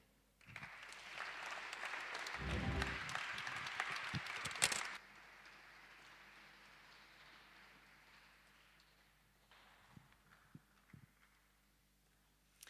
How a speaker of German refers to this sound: Lasst uns den dreien oder ich weiß nicht genau, wer ihn jetzt übersetzt, einen herzlichen Applaus geben